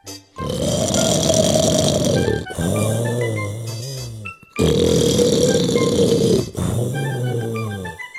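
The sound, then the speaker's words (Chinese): Loud, deep snoring of a devil in a fairy tale falling back asleep, in two long cycles, each a rasping, grunting inhale followed by a lower rumbling exhale, with a brief pause between breaths and no talking. “又继续给他捉狮子，魔鬼很快又鼾声大作。”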